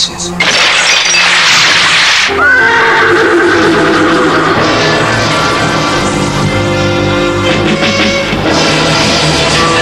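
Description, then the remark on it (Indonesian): A fire horse neighs wildly and frighteningly, loud, its shrill whinnies rising and falling for several seconds right after a sudden crash of a pot full of water shattering at the start. “Jaran Sembrani, kuda api miliknya itu meringkih-ringkih liar dan menakutkan”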